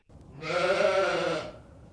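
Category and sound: animal, sheep bleating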